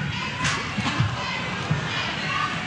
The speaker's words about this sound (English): And you can kind of hear the crowd go, ooh.